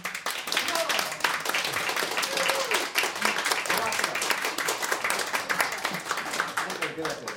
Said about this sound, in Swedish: en stor applåd.